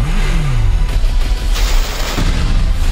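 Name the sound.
movie explosions and gunfire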